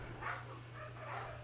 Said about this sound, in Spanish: como podrán escuchar, hoy decidí grabar, por, los, por lo tanto, los perros ladran se escuchará el reggaetón de fondo, eh, mi lavadora y todo ese sonido ambiental que pues es para que ustedes se sientan como en mi casa.